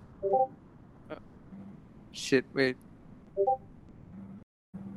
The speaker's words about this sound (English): Fuck, my phone keeps talking. wait, what? okay, good. No. Crap, okay, let me silence my phone. Hold on, hold up. My phone's interrupting the audio.